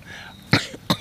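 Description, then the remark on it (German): Two sharp, explosive sneezes burst out in quick succession in a palace park, caused by pollen, each a loud, brief blast of air, with a faint hum of background noise between them. “Gesundheit.”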